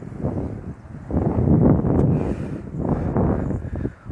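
strong wind blowing

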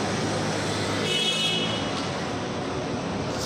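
city street traffic

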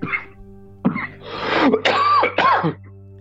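coughing fit

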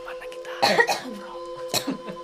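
cough

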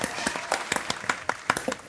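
round of applause

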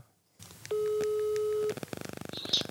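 telephone ringing tone

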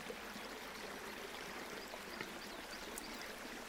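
flowing river stream

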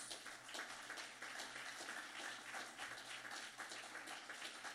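audience applauding

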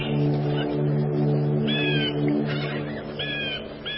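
crows cawing

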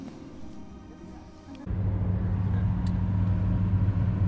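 car driving

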